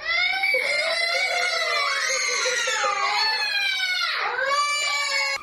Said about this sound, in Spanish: El video que se volvió viral muestra cuando una de las trabajadoras de la guardería de Hamilton, Mississippi, abre la puerta de un salón mientras otra graba los gritos de los niños.